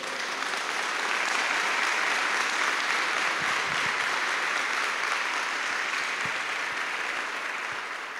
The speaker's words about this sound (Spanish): ¿Cuántos dicen amén? Le damos un fuerte aplauso al Señor por eso.